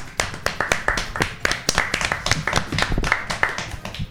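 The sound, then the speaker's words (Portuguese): A small group claps steadily, with sharp hand claps in a quick irregular patter that fills the whole stretch, as applause for Mais Fácil Veículos, the newest partner of the programme Deixa que eu chuto. No one speaks. “E uma salva de palmas à turma, o mais novo parceiro aqui do Deixa que eu chuto.”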